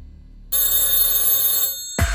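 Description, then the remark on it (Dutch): A telephone bell rings loudly for about a second, a bright, shimmering metallic trill, then falls silent before another sound abruptly cuts in at the end. “En als je de telefoon overhoort gaan, let dan wel op.”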